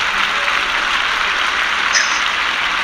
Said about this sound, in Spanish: hay unos aplausos de fondo.